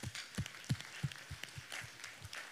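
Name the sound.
audience clapping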